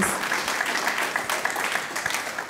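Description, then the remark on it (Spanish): An audience gives a strong round of applause to God, the King, dense overlapping claps forming a continuous, even wash of sound that holds at a fairly constant loudness throughout, with no clear voices on top. “Dale ese fuerte aplauso al Rey de”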